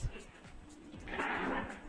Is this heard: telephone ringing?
no